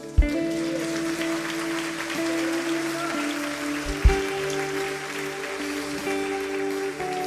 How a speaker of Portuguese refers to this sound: Uma salva de palmas para Cristo.